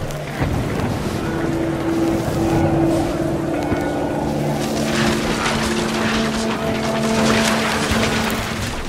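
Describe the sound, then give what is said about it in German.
Storm wind from the video game What Remains of Edith Finch, as a paper kite flies through the storm, roars steadily throughout, a dense, rushing noise with a few sustained low tones humming underneath. It stays loud and unbroken, with no one speaking. “Und hier fliegt ein Papierdrache durch den Sturm in What Remains of Edith Finch.”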